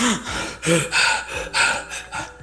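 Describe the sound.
A voice imitates heavy, agitated breathing, like a breathing camera in a film scene: about five quick, loud, raspy breaths in and out in a steady rhythm, with no words.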